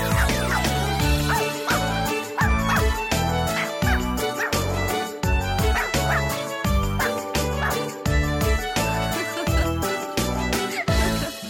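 Rhythmic, repeated bark-like 'woof' sounds, most likely a voice imitating a dog, pulse along with a loud, upbeat pop song, the yips falling on the beat over the music.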